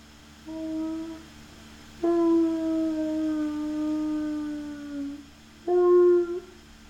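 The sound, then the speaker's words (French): A large creature in a cage inside a tent at night sobs and howls mournfully in three cries: a short one, then a long, wavering wail that slowly sinks in pitch, then a brief final howl. No one speaks. “Non, ce n'est pas une respiration, c'est un sanglot.”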